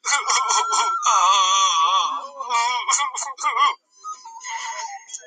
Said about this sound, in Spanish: El hombre lloró a gritos y a gritos.